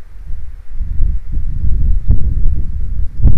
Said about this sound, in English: And there's a lot of wind today, so a lot more than like last time. So I tried to start it when there's a little less wind, but we'll see. Oh, here's another gust.